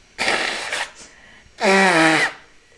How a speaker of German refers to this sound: Warte mal kurz. Oh, ich muss einmal nochmal Nase putzen, ey, ist richtig krass.